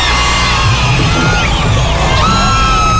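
A large live concert audience at a 2007 performance in Viña del Mar roars continuously, with yells, whoops and high whistles rising out of a dense, loud wall of cheering that fills the whole stretch.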